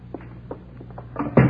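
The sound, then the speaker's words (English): An office door swings shut with a single solid thud at the end, preceded by a few faint soft knocks and shuffles over a low steady room hum. No one speaks. “Let's go back into my office, Kathy. I want to talk to you.”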